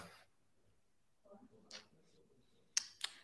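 A call connection glitching: faint, chopped-up murmurs drop in and out over near-silence, broken by a few sharp digital clicks and brief bursts of static toward the end.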